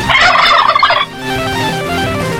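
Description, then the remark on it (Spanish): A loud turkey gobble played on a Mexico City radio station as the cue in a Christmas turkey giveaway, a rapid burbling rattle lasting about a second, followed by a steady tonal hum with no voices. “Obviamente tenías que escuchar la programación y al escuchar el sonido del pavo, tenías que marcar al número en cabina”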